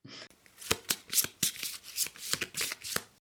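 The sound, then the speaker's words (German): Crisp papery snaps and swishes of tarot cards being handled, a quick series of sharp flicks and slides as the next card is flipped over, revealing the Ace of Coins, with no talking. “drehe die nächste Karte um.”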